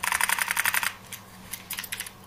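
A 1990s cassette tape from a 1995-96 Kenwood cassette player rattles as it is handled, one reel full and one empty, with quick bursts of plastic clicking, a brief pause, then another shorter flurry of rattles. No one speaks.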